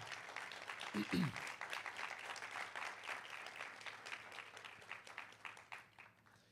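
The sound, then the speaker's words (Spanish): An audience gives the Lord a loud round of applause, a steady burst of dense rapid hand claps that hold strong for several seconds, with a brief vocal shout near the start. “¿Cuántos le pueden dar un aplauso al Señor fuerte?”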